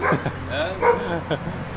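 A dog barks and yips in a quick series of short, high bursts, with a brief whiny pitch bending through the middle, over a faint background hum.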